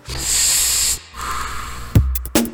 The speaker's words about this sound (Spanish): Destapó la botella y aspiró con fuerza.